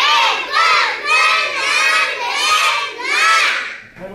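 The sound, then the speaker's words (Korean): A group of children at a taekwondo school in Sillim-dong, Seoul, shouts loud, high-pitched taekwondo kihaps in unison at 4 p.m. on an early-summer afternoon, about five sustained bursts in a steady rhythm with brief dips between them. “오후 4시 초여름 더위를 날리는 시원한 기압 소리가 울려 퍼집니다.”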